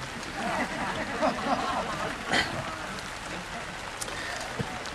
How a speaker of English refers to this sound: So I think that God might be helping us out here. I'm, I'm hearing the rain settle down a little bit.